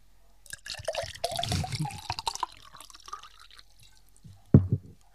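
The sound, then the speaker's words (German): Plain water splashes and trickles into a toilet bowl in a bathroom for a few seconds, with the microphone held into the bowl, then goes quiet before one last louder plop near the end. “Ah, das war natürlich nur Wasser.”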